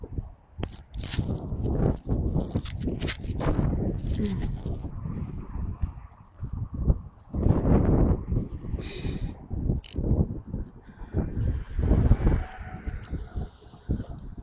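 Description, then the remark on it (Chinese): Strong gusty wind in Beijing during birdwatching, with gusts around force 7, buffets the microphone in loud, uneven rumbling surges that swell and drop throughout, with a low roar underneath and brief hissy bursts. “今天北京风很大，阵风7级左右”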